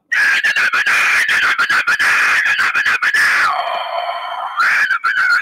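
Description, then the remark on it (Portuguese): A person imitates a vocalist screaming into a microphone, a harsh, raspy scream held for several seconds, loud, breaking briefly into a shriller tone before returning to the gritty roar. “Assim, aí você olha pro vocalista e tá no microfone assim, ó.”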